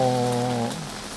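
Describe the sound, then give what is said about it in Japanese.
Steady rain hisses outdoors as a soft, even wash of noise, with a brief droning tone sounding over it for the first half-second before fading. “雨の中で思いながら録音をしています”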